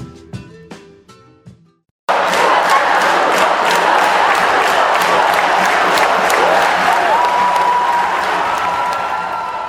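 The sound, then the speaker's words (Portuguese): After a short tonal passage and a brief pause, a crowd erupts into loud, sustained shouting and cheering with clapping, holding at full volume until the end, at the morning award ceremony of the 7th Brazilian National History Olympiad on 16 August in Campinas, Brazil. “Gritos, abraços, choro e até cambalhotas marcaram uma manhã de grande emoção na premiação da 7 Olimpíada Nacional de História do Brasil, no dia 16 de agosto em Campinas.”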